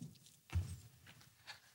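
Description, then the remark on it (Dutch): A few soft, uneven footsteps as a person walks all the way to the back of a hall: one heavier thud, then lighter steps spaced about half a second apart, faint, with no one talking. “Helemaal naar achter lopen.”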